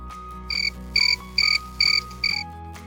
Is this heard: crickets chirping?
yes